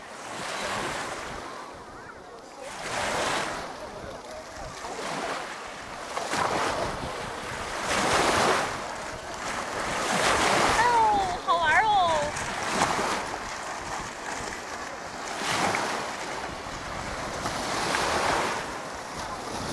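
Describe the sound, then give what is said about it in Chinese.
Waves of Xinghai Lake, a China–Russia border lake in Jixi, Heilongjiang, China, wash against the shore in a steady rhythm, about seven broad, hissing surges swelling and fading every few seconds over a constant rush of wind. “那真正站到了星海湖边，才发现它真的是像大海一样，甚至这一浪一浪的湖水拍向岸边，就像大海涨潮时的样子。”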